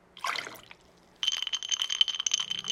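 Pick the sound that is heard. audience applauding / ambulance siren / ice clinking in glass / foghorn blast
ice clinking in glass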